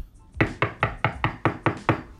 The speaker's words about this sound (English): You know, just when you thought life is fucking good, you hear a knock. You're like, what? Who's that? What? Like, wait, what? What's, going? what's going on? Uh, uh, yeah, let me go check the door.